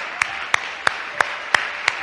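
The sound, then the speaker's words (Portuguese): A church audience applauding the wonderful King: six sharp, evenly spaced claps land in a steady rhythm over a constant hiss of crowd noise, with no voices heard. “Y una vez que esté en sus lugares, ¿por qué no das un aplauso a ese rey que tenemos maravilloso?”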